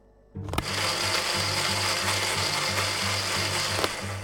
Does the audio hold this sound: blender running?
yes